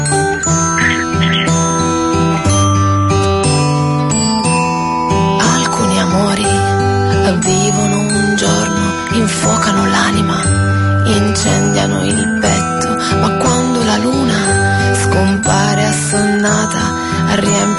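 A song's instrumental intro plays at a steady, full volume, with bright chiming, bell-like tones ringing over sustained chords and a pulsing low end.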